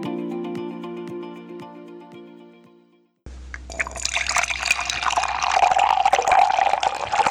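A steady tonal hum with soft regular ticks gives way abruptly to loud, continuous liquid sloshing and slurping as someone drinks a beverage, with no talking.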